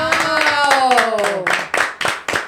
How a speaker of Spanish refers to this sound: Un, aplauso para eso.